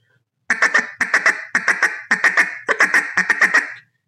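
A duck call blown as a feed call using a "ticka" tongue pattern that leaves out the voice, in short, clipped pecks with no voiced tone: five quick bursts of three or four sharp, reedy notes each, loud and evenly paced, with no talking.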